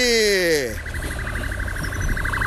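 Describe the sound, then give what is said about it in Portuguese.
An ambulance siren sounds as it passes along a street, a falling wail sliding into a fast, steady warble that stays fairly loud throughout over low street rumble. “Totalmente street hoje. Com a ambulância passando, cachorro latindo.”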